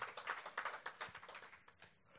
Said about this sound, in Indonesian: Boleh katakan amin. Tepuk tangannya boleh yang paling meriah buat Tuhan kita.